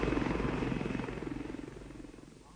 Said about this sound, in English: Master, the helicopter.